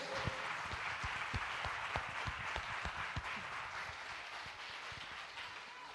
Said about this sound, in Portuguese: Você pode aplaudir a Ele só um tiquinho. É para Ele, irmão.